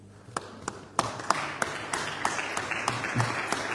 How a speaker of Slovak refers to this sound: Igor Matovič dokonca po vystúpení Anny Zemanovej jej tak e, cynicky nahlas zatlieskal.